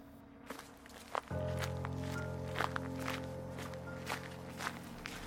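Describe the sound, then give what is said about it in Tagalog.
Steady footsteps of a person walking toward a bus terminal at sunset, at a regular pace, each step a soft thud, over a constant low engine-like hum that starts a second in. “Wala po akong tigil sa kaiiyak habang naglalakad papuntang bus terminal.”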